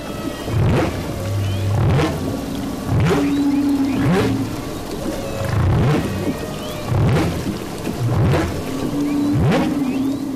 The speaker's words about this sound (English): quickly tosses a hydrophone, an underwater microphone, into the water and begins recording the whale's haunting song.